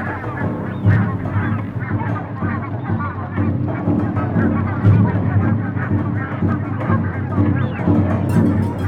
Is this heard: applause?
no